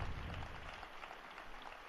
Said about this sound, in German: Heute ist er der Fahrer des Papstes. Ein Applaus für Renzo, für seine Treue.